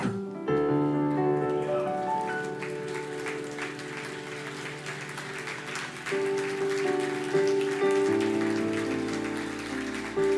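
An audience at a church service claps steadily for about ten seconds, applauding the Lord after receiving the communion bread: a dense patter of applause over sustained keyboard chords that shift a few times underneath. No one speaks.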